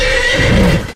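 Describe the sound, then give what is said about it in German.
A loud reindeer call that sounds like a horse's whinny, a single bright, strained cry lasting about a second before cutting off, with no talking. “Also das am Ende, das war das Rentier, das war nicht mehr der Schneemann, wollte ich jetzt nur an dieser Stelle nochmal aufklären.”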